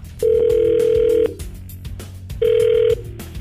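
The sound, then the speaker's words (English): A telephone ringback tone on an outgoing call: two steady electronic rings, one long and one shorter, separated by a pause, loud over a faint background. “You know that we're going to call her up and get some answers from her.”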